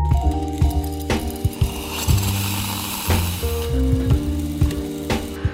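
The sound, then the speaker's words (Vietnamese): Construction drilling in Hanoi, Vietnam, grinds on steadily with a droning motor hum, punctuated by sharp rattling knocks and jolts, fairly loud, with no voices. “cái tiếng ờ, xây dựng này cái tiếng khoan này là một trong những cái tạp âm đó”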